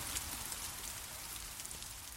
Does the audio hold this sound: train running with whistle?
no